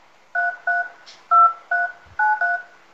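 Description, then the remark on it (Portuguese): Six mobile phone keypad tones beep one after another as the number 332393 is typed in, at a steady, slightly uneven pace, each a short clear dual-pitched electronic beep, with no one talking. “Abre teu celular e digita aí esses números.”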